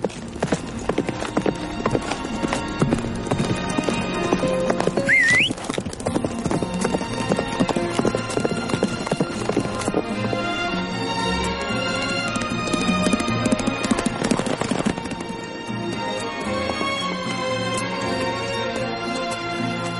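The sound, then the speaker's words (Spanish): A horse carrying a rider gallops hard at full speed across a wide plain, its rapid, steady hoofbeats loud for the whole stretch, with dense music swelling underneath. “James cabalga a lomos de su corcel a toda velocidad a través de una extensa llanura”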